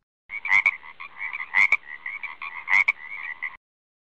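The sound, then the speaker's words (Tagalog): A frog croaks in a steady, rapid trill with three louder, sharper calls standing out at regular intervals, clear with no other sounds around it. “Frog”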